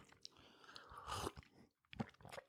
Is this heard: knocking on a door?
no